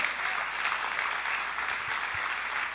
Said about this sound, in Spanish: Dámosle fuerte aplausos al Señor.